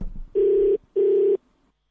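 A telephone ringback tone sounds twice in a quick double burst, a steady electronic buzz on an outgoing call made on Radio Veritas 576 AM to a woman turning 50 today. Clear and fairly loud, with brief silence between and after.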